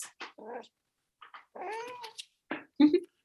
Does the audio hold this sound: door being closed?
no